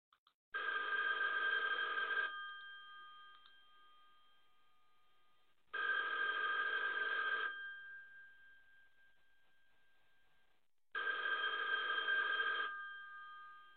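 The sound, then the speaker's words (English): An old-style telephone bell rings three times, each bright metallic burst lasting about two seconds with a lingering ring-out between, with no one speaking. “It means you're another call closer to losing your home to foreclosure.”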